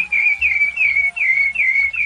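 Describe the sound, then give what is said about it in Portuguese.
A sabiá thrush sings a steady series of clear, whistled notes, each gliding downward, repeating about every half second in a smooth, melodious rhythm, fairly loud, with no talking. “Cantou como só cantam os sabiás, garganteando os trinos mais melodiosos e límpidos.”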